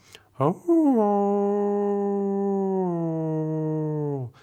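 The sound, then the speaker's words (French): A single wolf howl without the beau geste effect holds one flat, unwavering pitch for about three and a half seconds, loud, after a brief rising onset, then cuts off cleanly with no other sounds around it. “Le loup sans effet beau geste, ça ferait quelque chose comme ça”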